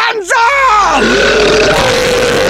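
A long, loud, rumbling burp that starts abruptly and drags on for about two seconds, its pitch wavering and sagging as it goes, with no other sound alongside it.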